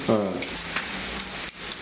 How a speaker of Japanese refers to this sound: あられですね大きさ的にはあられが降ってまいりました小沢駅の全部の僕ね、水たりに。ピチャピチャ、ピチャピチャやってるんですよ。